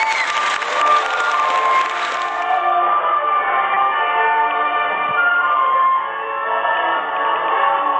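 A burst of clapping and cheering from an audience for the first couple of seconds, welcoming a singer to perform a song for mothers, then a steady, sustained musical tone with rich harmonics carries on at an even level.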